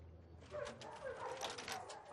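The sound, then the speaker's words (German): Several guard dogs of a security firm in Nairobi yip and whimper in quick, overlapping bursts as they return after a night guarding properties, a restless chorus of short high calls against a low background rumble, with no one talking. “Nach einer hoffentlich räuberfreien Nacht kommen die Hunde wieder bei ihrem eigentlichen Herrchen an, einer Sicherheitsfirma.”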